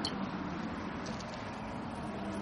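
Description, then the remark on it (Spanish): A steady, low wash of road traffic from cars around a building on a private estate, a continuous hum with no distinct passing vehicles, holding at an even, fairly quiet level throughout with no voices. “Y cómo el ruido ambiental, los coches, toda la civilización crece en torno, en torno a la construcción.”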